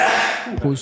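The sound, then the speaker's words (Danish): A single loud, breathy sneeze bursts out in a rush of hissing air, then quickly trails into a short voiced sound as someone starts speaking. “prosit, prosit.”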